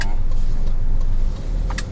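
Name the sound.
car interior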